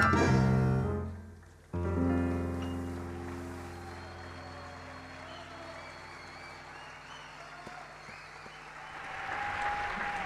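A band's final sustained chords ring out and fade, ending a show in which the band played along with a video of Diego Armando Maradona's voice; then an audience claps steadily for several seconds, the applause swelling slightly toward the end.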